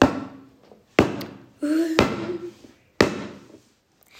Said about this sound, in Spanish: se despertó por el sonido de las pisadas.